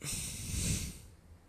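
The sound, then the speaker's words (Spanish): A single strong, airy breath drawn in sharply through the nose as part of an energizing breathing exercise, fairly loud for about a second before fading out, with no talking. “Hacer una respiración también de energía, donde podamos inhalar y”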